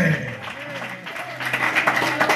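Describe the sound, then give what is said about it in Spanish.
A church audience claps to the King of Glory, a dense, fairly loud patter of many hands that builds toward the end, while a voice speaks or calls out over the applause. “Tienes palmas al Rey de Gloria.”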